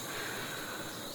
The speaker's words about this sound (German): Man hört es vielleicht im Hintergrund, ich koche gerade Kaffee. Es ist 5 Uhr morgens. Und äh, jetzt habe ich den Gaskocher an.